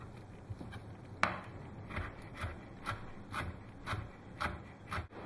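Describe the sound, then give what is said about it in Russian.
A knife finely chops parsley on a wooden cutting board in a steady rhythm of crisp taps about twice a second, fairly quiet, with one sharper knock near the start and no voices. “Петрушку мелко нарезать.”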